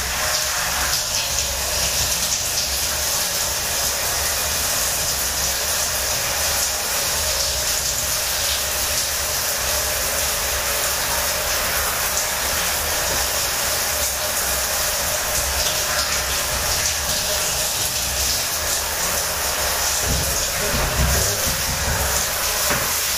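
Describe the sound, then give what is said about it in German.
A shower runs steadily as a person rinses off, a dense, hissing spray of water with no pauses and no voices, loud and even from start to finish. “Hört also wieder den typischen Duschsound.”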